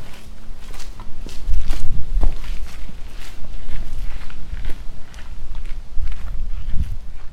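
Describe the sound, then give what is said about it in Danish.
Footsteps walk away at a steady, unhurried pace, each step a dull thud on a hard surface, repeating for several seconds with no one speaking. “Og så skrider jeg.”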